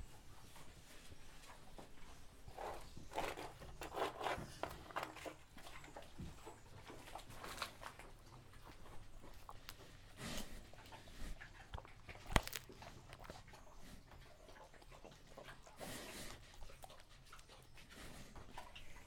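Pigs eating in a stable, with steady wet chewing, crunching and snuffling that runs continuously with irregular bursts and an occasional sharper knock; no one speaks.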